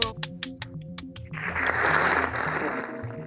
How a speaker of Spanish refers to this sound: Ya, ya puso un aplauso, qué bonito.